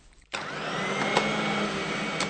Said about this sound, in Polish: i od razu wręcz prowokacyjnie wraca do pracy, uruchamiając ponownie odkurzacz.